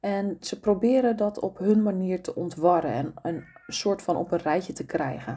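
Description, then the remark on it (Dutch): A cat meows faintly in the background, a short drawn-out cry rising briefly beneath a person speaking steadily in the foreground. “Oh, nou, dat is de kat op de achtergrond.”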